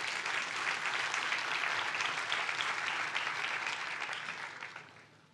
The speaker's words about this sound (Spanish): ¿Le puede dar un fuerte aplauso a Dios por eso?